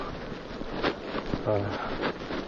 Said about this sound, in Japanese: うん、池のほとりでね聞こえるこういう水の音とか小川のせせらぎみたいなのいいですよね、うん、癒し効果あるなって最近っと実感してますけど。